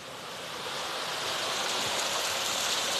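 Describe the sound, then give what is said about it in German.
Steady rushing water pours through a narrow channel diverted to drive a mill, a dense, continuous hiss without pauses, moderately loud, with no voices. “Siehst das jetzt über diesen Floder ist die Mühle angetrieben worden.”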